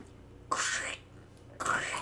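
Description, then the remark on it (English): Two short bursts of crunchy, breathy mouth noise, a voice imitating bones being crunched in a whispery ASMR style, separated by a brief quiet pause. “That's the sound of your bones being crunched.”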